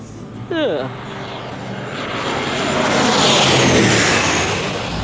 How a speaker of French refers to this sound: Voilà, l'avion s'est posé. Après quelques tours sur la piste, les passagers vont enfin pouvoir descendre. 8 heures de vol, tout de même, pour retourner en Suisse.